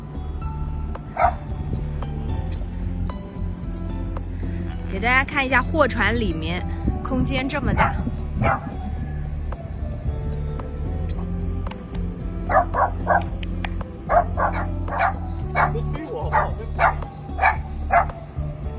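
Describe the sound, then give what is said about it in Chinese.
A dog kept by the boat's owner barks on a cargo boat in bursts of short, sharp yaps, some rapid and repeated, over a steady low engine-like hum while a person talks through much of it. “大家看，这个这艘船上的主人还养了一只狗。”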